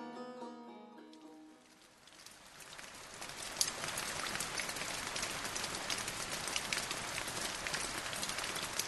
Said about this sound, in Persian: از شروع باران آنقدری گذشته بود که آب در شیب خیابان سرازیر شود